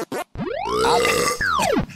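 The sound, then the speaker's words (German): A long, loud burp that swells and falls in pitch over about a second and a half, preceded by two quick short noises, alone with no talking. “Ja, Gesundheit.”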